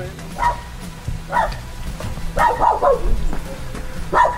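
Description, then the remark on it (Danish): An excited dog, Charlie, barks in short, sharp bursts in Selling: single yaps, then a quick cluster of several barks, then one more, over a low steady background rumble. “hunden Charlie har rejst både øre og hale i spændt forventning.”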